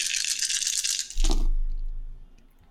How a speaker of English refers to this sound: Uh, three successes. I rolled four ones on that roll.